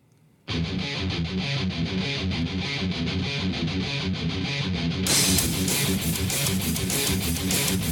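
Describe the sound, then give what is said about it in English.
A fast heavy metal song kicks in abruptly, loud and dense with driving distorted guitars and pounding drums, growing even brighter and fuller about five seconds in as crashing cymbals join. “a barn burner of a song …, but I'm going to play the opening of it first”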